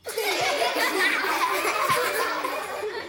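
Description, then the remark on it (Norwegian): A canned laughter sound effect played from a laugh button: a crowd of many voices laughing together, loud and continuous for a few seconds, then trailing off slightly at the end. “Den fortjener en skikkelig latterknapp.”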